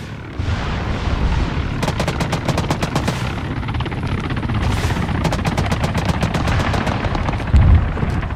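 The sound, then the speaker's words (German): Rapid bursts of automatic gunfire from a war video game crackle over a dense, rumbling battle din, with sharp repeated shots in quick volleys and a steady roar of explosions and engine noise beneath, no talking. “noch etwas zu spielen, wie zum Beispiel Battle of Kiev, die Schlacht um Kiew”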